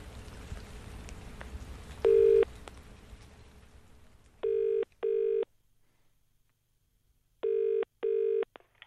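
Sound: telephone dialing and ringing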